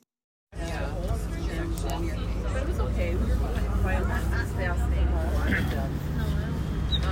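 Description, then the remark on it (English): Inside a rumbling school bus, a crowd of children chatters and calls out over one another, their overlapping voices lively above the steady low drone of the engine. “on a school bus filled with children as they tour the jungles of South America the plains of South Dakota.”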